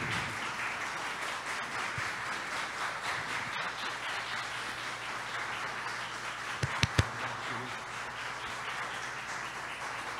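Sustained applause from an audience standing at a spiritist gathering, applauding the leader of the Tenda Espírita Nossa Senhora da Piedade: a dense, steady wash of many hands clapping for about ten seconds with no voices, with a few sharper claps standing out near the end.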